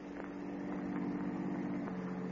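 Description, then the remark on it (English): A car engine idles along at low speed as the car slowly follows a woman hurrying down a darkened street, a steady, droning rumble with a slight pitch waver that stays even throughout, with no voices. “Little did she know that close behind, as she hurried down the darkened street, a car was slowly following her.”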